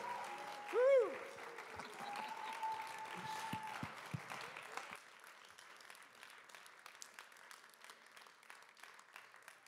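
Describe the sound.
Sustained audience applause, a dense crackle of many hands clapping throughout, with a brief whoop near the start and some cheering voices over the first half before the clapping continues on its own.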